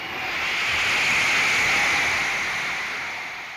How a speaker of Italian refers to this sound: 55.000 persone sono la cornice dello storico concerto del She Stadium a New York. La bolgia è assordante e emblematico nella ripresa del live.